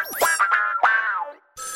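A short electronic phone ringtone plays loud, a run of bright sliding, bouncy tones, then a brief pause before a buzzy burst starts again. No one speaks.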